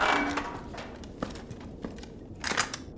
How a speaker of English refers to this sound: Oh, wait. Someone's opening up the shelter door.